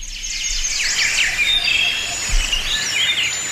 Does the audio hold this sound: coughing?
no